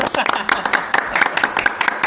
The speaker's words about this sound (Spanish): Cerramos con un aplauso para el, Para el asador. Para el asador. Para el asador.